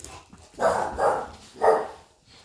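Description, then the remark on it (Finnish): A dog barks three times in quick succession, the first two close together and the third after a short pause, with nobody speaking. “niin, niin tuota, koira aisti sähkö vielä.”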